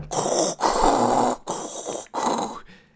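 A baby's loud breathing crackles through the small speaker of a baby monitor turned up to 100%, four rough breaths in a steady rhythm, each a hissy, slightly snoring rush of air with brief silent gaps between them.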